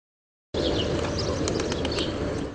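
A flock of birds takes off all at once in a famous big-city square, a loud rush of flapping wings with faint chirps mixed in, starting abruptly after a moment of silence and holding steady.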